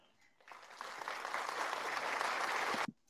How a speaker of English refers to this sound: Had to throw a little, cl- little clapping in there for you.